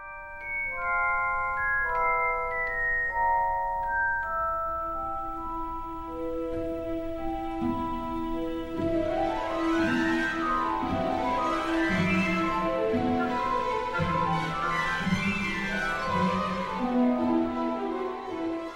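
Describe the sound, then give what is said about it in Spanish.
Orchestral film music opens with a bright, bell-like celesta melody, then swells into rapid, swirling string figures that rise and fall like fluttering wings. Loud, steady, with no voices. “Esas cuerdas logran simular un vuelo, la ligereza del aire, incluso el aleteo de las lechuzas.”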